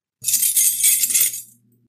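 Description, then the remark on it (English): A bright metallic jingle of room keys shaken and handed over, lasting just over a second, fairly loud with a faint low hum underneath and no talking. “Now I know you two have to keep up the proprieties, so here are the keys to your separate rooms.”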